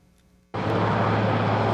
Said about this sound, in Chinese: 由总统专用直升机缓缓降落英国温莎城堡。